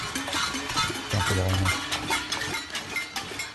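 Protesters bang many pots and pans at once, a dense, continuous clatter with sharp metallic hits overlapping into a loud, busy din and no clear rhythm.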